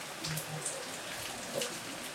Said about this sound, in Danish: vi laver den lidt kortere, den her, fordi der er virkelig meget regn, men ja.